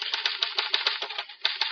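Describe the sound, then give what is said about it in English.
Rapid, steady typewriter keystrokes clatter in a quick rhythm, each strike crisp, with a brief pause before the typing resumes, as a police stenographer types up a confession at headquarters. No voices. “At headquarters, I waited until the police stenographer completed typing up the Lennox confession.”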